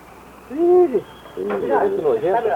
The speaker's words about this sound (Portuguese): Cheio de passarinho aqui, hein? É, cheio de passarinho. Ainda bem. Que né, passarinho que é esse aqui? João de Barro. é João de Barro.